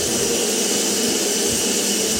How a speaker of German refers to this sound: Oh wow, jetzt kommt hier die Kaffeemaschine zum Tragen.